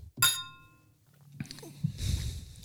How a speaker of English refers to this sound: All right. Well, let's uh let's cheers it up and then. All right. Cheers.